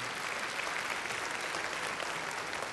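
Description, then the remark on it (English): A crowd claps steadily for the women who work outside the home, the dense patter of many hands forming a continuous wash of applause that holds at an even, moderate level throughout without pauses. “Yeah, let's give your applause.”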